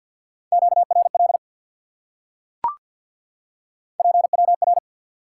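Rapid Morse code tones at 50 words per minute, sending QSO elements at a steady pitch in two short bursts of fast dits and dahs separated by a pause, with a single sharp click in the gap.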